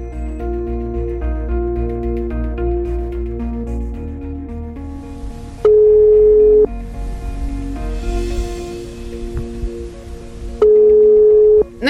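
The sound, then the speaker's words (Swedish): A telephone ringback tone sounds twice during a call to a company about where a parcel had ended up, each a steady, loud beep about a second long with several seconds between, over a bed of soft background music. “men jag bestämde mig såklart för att ringa det här företaget eh, och kolla var, varför paketet hade hamnat där.”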